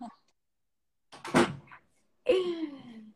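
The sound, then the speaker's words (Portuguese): A door is shut with one solid thud and a brief rattle, then a short voiced exclamation with a falling pitch follows. “Peraí que eu vou fechar a porta que tem um capetinho.”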